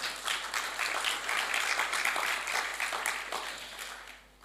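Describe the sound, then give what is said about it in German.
An audience applauds steadily for two participants, a dense patter of many hands clapping that holds at an even level for several seconds before fading out at the end. “Ein kleiner Applaus für die beiden.”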